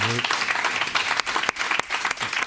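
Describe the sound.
An audience claps steadily, a dense wash of many hands with a few sharper individual claps standing out; a brief voice fragment is audible at the very start.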